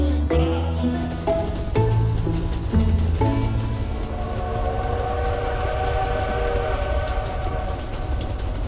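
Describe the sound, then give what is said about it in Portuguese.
Constant creaking and groaning of metal and stone from a small train moving through snow, over a steady heavy rumble, broken by a few sharp jolts early on, loud, with no voices. “A travessia de vocês transcorreu com bastante tranquilidade, tirando o fato de todos estarem cantando constantemente, desde Mirabar, resumindo-se aos solavancos eventuais e ao constante ranger de metal e pedra do trenzinho se locomovendo pela neve.”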